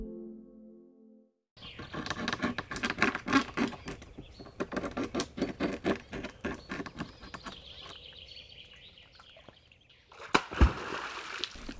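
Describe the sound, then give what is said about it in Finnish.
Water sloshes and splashes continuously, then a single hard, booming slap bursts out near the end as a beaver strikes its tail on the surface of a summer forest pond at dusk, warning other pond dwellers of a newcomer, the water shattering metres high. “Lähestyttäessä iltahämärässä kesäistä metsälampea voi kuin tyhjästä lammen pinnasta kuulua voimakas läimäytys ja vesi pirstaloituu metrien korkeuteen.”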